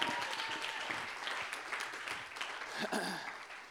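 A crowd in a hall claps steadily for a person for a few seconds, a dense, continuous patter of many hands, with some voices faintly mixed in near the end.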